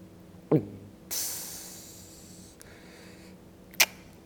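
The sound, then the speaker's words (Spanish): A voice imitates a soda can opening into a microphone: a short mouth pop, then a long breathy hiss that fades, and a sharp click near the end. Fairly quiet, with no talking. “Eh, traté de imitar cómo se abre una lata de refresco.”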